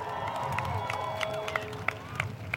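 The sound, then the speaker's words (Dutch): A crowd at a Black Lives Matter gathering cheers and applauds itself, with scattered sharp claps over a steady roar of many voices and a few high shouts or whistles rising above it. “Dikke applaus voor jouzelf eerst.”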